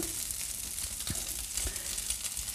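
Steady sizzling of tofu frying in a pan, already browned and crispy in spots, with a few soft thuds and scrapes as the pan is shaken; no one speaks.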